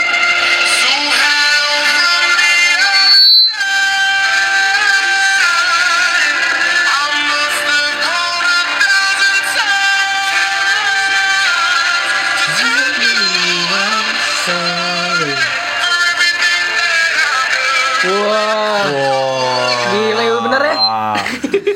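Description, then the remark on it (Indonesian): A pop song plays loud and steady, its female lead vocal pitched down so the singer sounds like a deep male voice, with sliding melodic lines over full backing music. “Jadi tuh diturunin se -se sedemikian rupa sedemikian lah ya. rupa pokoknya jadi mirip gitu.”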